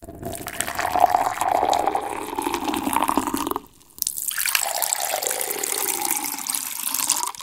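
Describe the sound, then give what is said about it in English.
Hot liquid pours steadily into a glass for a few seconds and stops briefly, then cold liquid is poured into a glass, its pitch rising as the glass fills. Clear, with no talking. “I found it fascinating that people can distinguish between hot and cold liquids being poured into a glass while blindfolded.”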